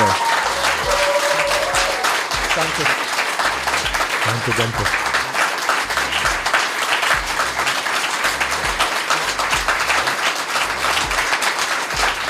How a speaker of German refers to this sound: Danke euch, dass ihr hier im Freiraum wart. Und einen schönen Applaus, bitte.